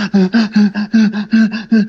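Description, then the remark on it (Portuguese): A voice imitates the heavy, panicked breathing of a panic attack: about nine quick, loud, voiced gasps in a fast, steady rhythm, with no talking. “tipo, um, dois, respiração pesada, ficava.”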